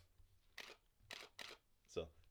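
Four sharp mechanical clicks of a DSLR camera's mirror flipping as the camera is held up to the microphone, spaced unevenly about half a second apart, loud against a low background hum with no talking.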